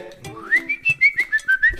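A person whistles a quick run of short, clear notes, about seven or eight chirpy pulses in a bouncy rhythm, fairly loud, with no talking.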